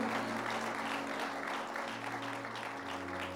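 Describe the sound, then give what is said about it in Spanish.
Sustained applause for the Lord from an audience at a Saturday church service in the city of Sillán, a steady dense wash of clapping that holds at an even, fairly loud level throughout, with a low organ-like hum running underneath. “Ese fuerte aplauso de hasta el Señor.”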